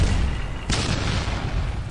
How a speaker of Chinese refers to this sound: 傍晚时分，公共租界的商店和剧场则先后发生了三起爆炸案。